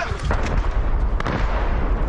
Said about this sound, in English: as Russian shells rain down. Families clutching their children, their belongings, their pets, making a desperate escape. This mortar hits a crossing, killing a mother and her two children.